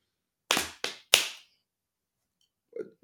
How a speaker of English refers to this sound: So you slap your thighs, right, left, right, clap your hands, and you say, nailed it.